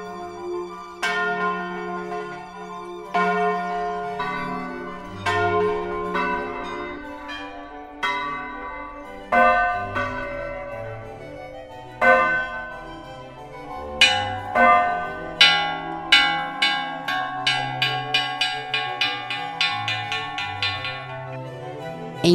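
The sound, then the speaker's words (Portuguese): Large Catholic church bells in Ouro Preto, swung on an axis by a rope so the clapper strikes inside, ring out in a loud, resonant peal, with strikes starting spaced and irregular, then quickening into a rapid, overlapping clangor as the bells swing, their long metallic hum lingering beneath. “Levando em conta as mais variadas situações e eventos, existem mais de 20 formas diferentes de tocar os sinos na cidade de Ouro Preto.”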